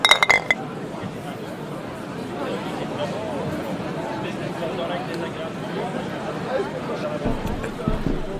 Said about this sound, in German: Vielleicht müssen wir öfters anstoßen. Vielleicht auch zu Hause. Prost. Prost.